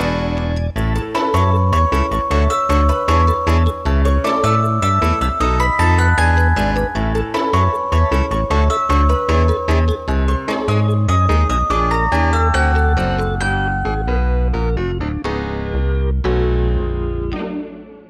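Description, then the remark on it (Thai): A school bell rings out as a loud, steady melodic chime, bright repeating tones carrying on for about eighteen seconds with no voices, then fading at the very end. “ียงออดดังแล้ว อุ้ยต้องไปเข้าเรียนแล้วล่ะค่ะ”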